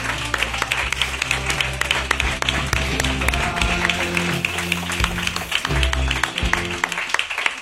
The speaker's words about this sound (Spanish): Y lo que vamos a hacer, como siempre, somos elegantes y hacemos es aplaudir a nuestro público. Muchísimas gracias al público lunero.